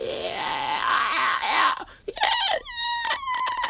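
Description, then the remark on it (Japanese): A voice mimics people at a fountain screaming after its water turned all green: a long, high, strained shriek followed by several short, piercing squeals in quick succession, loud. “ーキャーみたいな悲鳴がすごい上がりまして”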